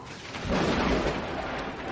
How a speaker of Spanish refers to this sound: Suena un trueno que hace temblar todo el edificio.